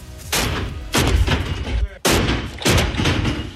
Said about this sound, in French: Le métal claque sur le sol de la salle d'haltérophilie de l'INSEP. Romain Madouchen répète son arraché, l'un des deux mouvements de l'haltérophilie avec l'épaule jeté.